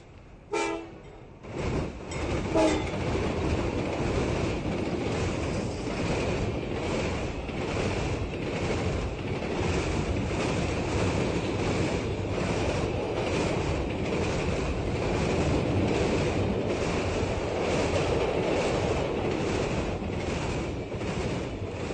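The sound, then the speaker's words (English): A train thunders through a station, a loud sustained roar of rushing carriages and rattling wheels lasting throughout, with a brief horn-like tone at the start and no talking. “My reverie's shaken as a train thunders through the station.”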